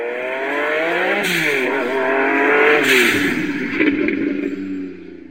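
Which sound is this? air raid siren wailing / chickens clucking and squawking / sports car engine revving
sports car engine revving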